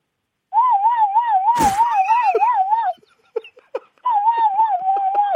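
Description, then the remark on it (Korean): A person imitates the siren of an emergency ambulance carrying a patient on a highway, with a steady, warbling wail, breaks off briefly with a few small clicks and breaths, then resumes the siren sound. It's fairly loud. “저희 그 고속도로 갈때 예. 응급 응급 예. 환자 실고 가시는 예. 그 사이렌 소리 어, 한번 해보겠습니다.”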